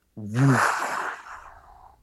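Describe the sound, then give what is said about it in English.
A voice mimics a deep blast heard through a city at night, not a bomb but a woof sound: a short low-pitched burst that spreads into a breathy rush and slowly fades over about two seconds. “through the city like a deep like not a bomb just a woof sound”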